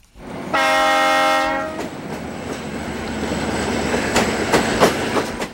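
A loud, steady train horn blares for about a second, then gives way to the rumbling roar and rhythmic clatter of a train rolling past, with sharp metallic clicks toward the end.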